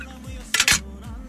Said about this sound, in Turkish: Bakın zaten şu sesi bile özlemiş olabilirsiniz. Bu bakın kaseti, kaset koruyucusunun sesi bu bakın.